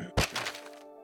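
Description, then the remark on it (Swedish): A single small thud as a small golden book drops onto the floor in a library, landing sharply, followed by a brief scattered rustle as it settles, with no voices. “Um, och när du sitter där inne och studerar så är det så hör du en, en liten duns bakom dig vid ett tillfälle.”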